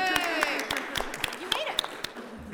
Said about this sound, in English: It's her birthday. Can we all give a round of applause for her birthday, please?